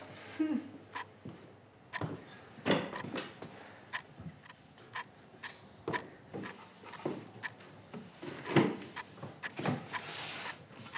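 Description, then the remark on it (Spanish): A door is opened amid a string of sharp clicks, knocks and rattles, irregular, as if the handle and latch are worked over several seconds. “Abrir la puerta.”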